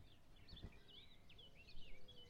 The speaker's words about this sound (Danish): Himlen er begyndt at blive lysere, og enkle fugle er begyndt at give lyd fra sig.